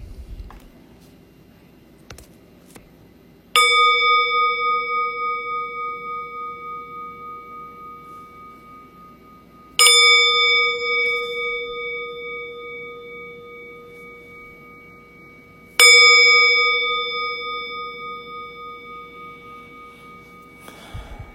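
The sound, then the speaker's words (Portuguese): A meditation bell rings three times at the start of a shared Zen (zazen) meditation practice, evenly spaced about six seconds apart, each strike a clear bright tone with shimmering, wavering overtones that fade slowly before the next. No voices are heard. “convidar o sino a soar três vezes”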